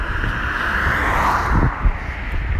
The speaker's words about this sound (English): and I'm aware when the car's going past that, um, you know, I'll try and not talk.